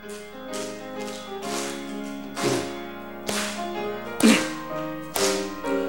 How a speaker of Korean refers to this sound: 여러분 찬양하실 때 어깨 넓이로 박수 치시면서 어디 넓이요? 예, 어깨 넓이로 박수 치시면서 우리 하나님 앞에 영광 돌리겠습니다.